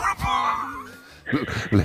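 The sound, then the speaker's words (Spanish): A small dog, Danny Boy, a therapy dog, whimpers in a long, high, wavering whine, then lets out two or three short, sharp barks. “Escúchame, eh, además es un perro, es un perro de terapia”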